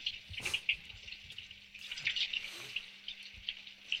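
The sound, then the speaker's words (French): Water runs steadily with a continuous hiss as someone takes a shower and washes, broken by a few brief splashes and knocks. No one speaks. “Je me douche, je fais ma toilette.”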